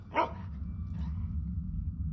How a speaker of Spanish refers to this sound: Durante mis turnos tenía unas situaciones que si bien no eran paranormales, sí eran raras, ya que empezaba a escuchar por las noches, así como grillos, y ya al amanecer parecía de manera sincronizada que varios perros ladraban a lo lejos.